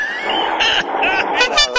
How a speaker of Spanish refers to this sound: la bocina de esas, como la de los hermanos Martin, de los manuales